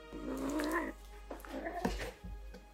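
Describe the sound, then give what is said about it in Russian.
A cat caterwauls: one long, wavering yowl, then a shorter strained cry, followed by a few soft bumps and rustles. “Но видите, даже кошке это не нравится.”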